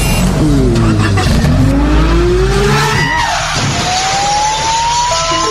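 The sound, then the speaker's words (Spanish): A car engine revs loudly and climbs in pitch as the vehicle pulls away, followed by a sustained, rising high-pitched squeal like tires skidding. “Me tomo este y me monto al carro.”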